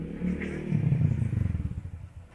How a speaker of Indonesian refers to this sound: mohon maaf ada suara motor ini orang-orang sedang bersiap untuk balapan